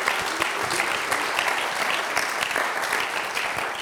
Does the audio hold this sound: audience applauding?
yes